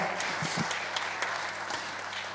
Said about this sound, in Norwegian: Men de her er de beste, sant? Jeg har et mantra jeg sier det alltid de beste som heter Ja, klapp for dem, det er veldig bra.